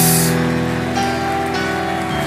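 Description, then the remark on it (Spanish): An audience applauds the Lord during a church welcome, in a dense, steady wash of clapping that holds at an even loudness for a couple of seconds, with sustained musical tones humming underneath. “Y como dice el pueblo, como dice el pueblo, como dice el pueblo, fuerte ese aplauso al Señor por estas vidas.”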